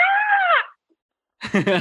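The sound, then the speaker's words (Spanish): A voice imitates a loud, high-pitched scream of surprise, one sustained "ah" lasting about half a second that dips at the end, followed by a short silence before someone starts talking. “Pero escuché que gritaron y dijeron, ¡Ah!”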